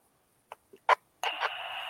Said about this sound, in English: Be advised, we have a barred owl that's uh, saying hello out here.